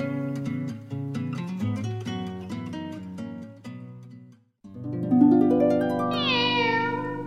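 A short musical jingle plays, then a cat meows with a rising, drawn-out cry near the end. The meow is clear and close, with no talking.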